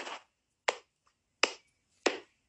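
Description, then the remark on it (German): Four sharp, crisp hand claps in a slow, steady rhythm, each a bright short smack with a quick decay and silence between, no voices. “Und wir klatschen und es macht keinen Sinn.”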